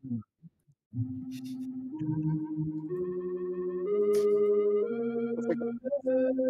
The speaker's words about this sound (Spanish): Música de misterio.